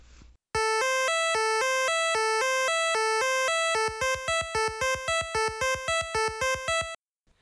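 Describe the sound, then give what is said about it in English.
A bright, buzzy synth melody plays a quick repeating A-C-E note pattern; in the second half each note gets a softer echo repeat at reduced volume right after it, turning it into A-A-C-C-E-E and giving a stuttering, doubled rhythm. “And the second version of each note is done at a reduced volume.”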